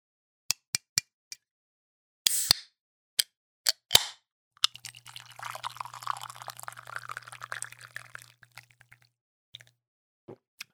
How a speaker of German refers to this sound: Bevor ich dazu was sage, mache ich mal ganz kurz mein Getränk auf. Same, ich gieß ein. Dreimal drauf.